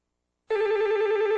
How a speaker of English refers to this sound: And there's the phone. Who is this calling me?